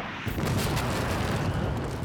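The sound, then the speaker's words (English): A loud broadside of cannon fire from the ship Adventure at the Ranger, with heavy booms erupting almost at once and merging into a continuous, thundering rumble that fills the whole stretch with no voices. “Having lost the element of surprise, Maynard watches in horror as the adventure broadsides the Ranger with cannon fire.”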